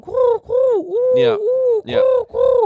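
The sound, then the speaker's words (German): A person imitates a pigeon's cooing with a series of throaty, warbling coos in a steady rhythm, fairly loud, with no other sounds around it. “Total krass, wie, äh, wie äh, gut diese Taubenroboter schon geworden sind.”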